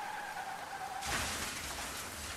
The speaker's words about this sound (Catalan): Un diluvi i el patac d'un cotxe al carrer contra alguna cosa.